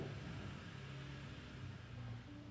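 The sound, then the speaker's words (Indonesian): A motorcycle passes by outside, its engine a low, fairly faint steady drone that holds an even level throughout, with a hiss of background noise and no voices. “Ada suara motor lewat”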